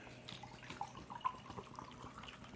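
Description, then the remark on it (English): Water being poured into a glass, a quiet, steady trickle with a few small bright splashes, with no talking. “Thank God it was water oh, I need to put in my glass.”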